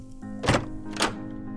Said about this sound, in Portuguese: Bateram à porta do escritório.